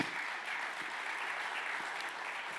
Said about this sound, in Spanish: Den un aplauso fuerte a papá.